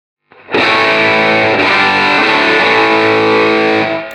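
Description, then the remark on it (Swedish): A heavily overdriven electric guitar through a Wampler Tumnus Germanium overdrive pedal, gain set at about three o'clock, with thick fuzzy saturation, strikes a chord and lets it ring loud for several seconds before it fades, with no one talking. “I veckans pryl är det världspremiär på Wampler Tumnus Germanium.”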